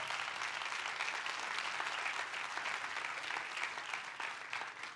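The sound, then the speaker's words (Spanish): A crowd claps steadily for several seconds, a dense, even wash of many hands applauding at a constant strong level with no voices standing out. “Fuerte ese aplauso.”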